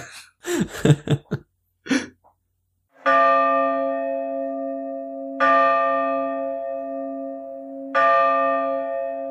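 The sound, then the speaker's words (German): A deep church bell tolls three slow, heavy strikes at midnight, each ringing out with a long humming decay. A few brief coughs and throat-clearing sounds come just before the first strike. “Hörst du das, Daniel? Es ist schon Mitternacht”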